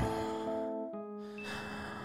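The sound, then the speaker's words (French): A slow, soft breath, an airy inhale followed by a long exhale, drifting over a steady, sustained musical drone with no talking. “Deux respirations.”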